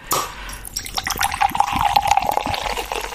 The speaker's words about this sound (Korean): 이 소리 들, 들으셨어요? 오늘 보물소리입니다. 네. 이 소리를 일부에 나가는 어떤 노래 속에 숨겨놓을 거예요. 잘 기억해 두세요. 이게 사이다 뚜껑 뻥 따는 소리예요. 한 번 더요.